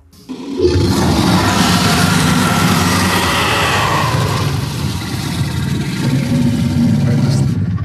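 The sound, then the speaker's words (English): A monster lets out a long, loud, rumbling roar that begins abruptly and holds steady for several seconds, deep and gravelly with a harsh, noisy edge and no voices. “just all kinds of as it moves up to try to get into a flanking position with the angry, who sits there still roaring.”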